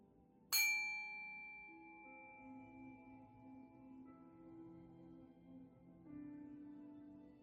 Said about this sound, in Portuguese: O sino inicia e finaliza a prática.